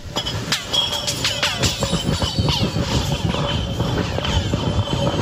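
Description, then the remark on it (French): A man drops a 9-inch (about 22 cm diameter) block of ice down a hole in the ice more than 137 metres deep, setting off a rapid series of sharp, echoing impacts and bright, descending laser-like chirps that ring on steadily with no talking. “C'est pas une brique que le gars laisse tomber dans un trou dans la glace, c'est un bloc de glace.”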